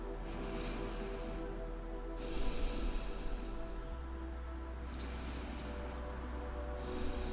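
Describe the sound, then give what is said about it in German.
Slow, deep breaths rise and fall in long airy swells a few seconds apart, with no talking over them, breathing along during a guided meditation. “und atmet mit mir hier einfach.”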